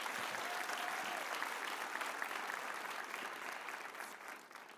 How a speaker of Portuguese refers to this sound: Yes, dê para Jesus uma forte salva de palmas.